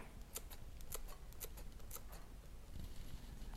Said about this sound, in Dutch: Normaal knip ik tjak, tjak, tjak veel sneller, ja.